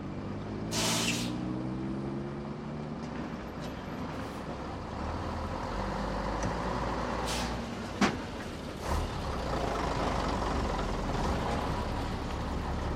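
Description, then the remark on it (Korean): A late-night bus at Dong Seoul Terminal, departing for Baekmudong at Jirisan around midnight on the last night of January 2020, rumbles steadily as a sharp hiss of air brakes bursts out early on, followed later by a few clunks and softer releases of air, with no voices. “동서울 터미널에서 지리산 백무동으로 출발하는 심야버스에 올랐다.”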